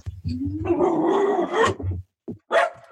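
dog barking and growling

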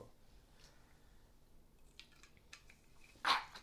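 sneeze

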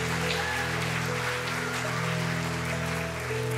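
audience hand clapping

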